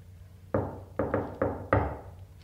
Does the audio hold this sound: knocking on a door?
yes